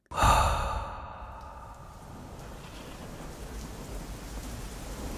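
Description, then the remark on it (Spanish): A sudden loud burst of thunder at the start fades into a steady hiss of heavy rain in the jungle that continues evenly to the end. “General Sáenz, con esta lluvia es imposible. La selva se vuelve un lodazal. Además que los truenos asustan a los caballos.”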